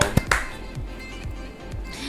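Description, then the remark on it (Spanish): Two quick, sharp hand claps at the start, applauding the news that Meghan Markle and Prince Harry are expecting their second child, followed by a low, murmuring background with faint soft thumps and no clear voices. “Aplaudí. Bravo, bravo.”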